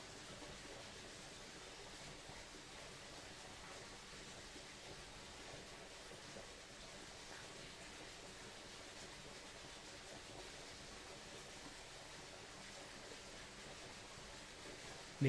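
A steady, unbroken rush of stream water flowing through a sacred ravine, soft and continuous with a hissing, bubbling texture, heard alone without voices for the whole stretch.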